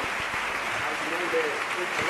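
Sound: ovation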